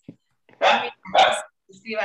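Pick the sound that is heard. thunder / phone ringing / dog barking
dog barking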